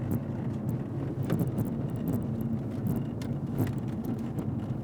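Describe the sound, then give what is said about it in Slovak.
A steady low rumble of a fleet car driven slowly with braking and accelerating, with scattered short clicking rattles rising over it at irregular moments from something loose vibrating inside the instrument panel. “Niečo tu drnčí, niečo vnútri prístrojovky drnčí.”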